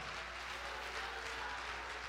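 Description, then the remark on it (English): A crowd claps their hands in steady, dense applause, the many overlapping claps blending into a continuous wash of sound at a fairly constant level throughout; clapping in praise to God at a preacher's call. “Somebody clap your hands and give God a shout of praise.”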